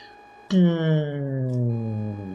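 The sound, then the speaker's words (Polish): A voice imitates an alarm suddenly going off throughout a whole building: a loud, sustained wailing tone that starts abruptly and slowly slides downward in pitch for about two seconds, over faint steady background tones. “I w całym budynku nagle się włącza się alarm.”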